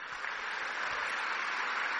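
A crowd in Brazil claps steadily for a couple of seconds for the '10 medidas contra a corrupção' anti-corruption project, a dense, even wash of hand claps with no pauses and no voices standing out.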